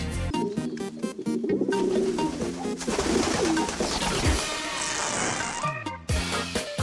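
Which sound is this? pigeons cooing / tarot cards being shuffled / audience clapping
pigeons cooing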